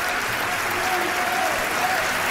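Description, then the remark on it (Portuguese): Steady, dense applause from a large standing audience waving Portuguese flags for Luís Montenegro, a continuous wash of clapping that holds at an even, loud level throughout without breaks or distinct voices rising above it. “Ainda sala de pé a aplaudir já com essas bandeiras de Portugal.”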